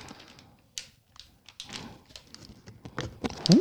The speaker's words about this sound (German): Ich öffne jetzt die Tüte.